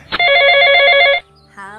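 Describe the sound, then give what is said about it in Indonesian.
A telephone ringing on an outgoing call: one long, loud, steady electronic ring tone, a short pause, then the start of a second ring, with no one talking. “Yuhu, langsung kita telepon aja.”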